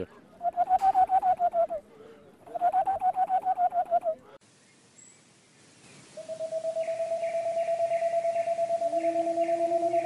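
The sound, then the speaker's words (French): A Tengmalm's owl, a small boreal owl, sings a rapid series of soft, evenly spaced repeated hoots: two short bursts, a pause, then a longer steady run, with no voices. “c'est une petite chouette boréale qui vit”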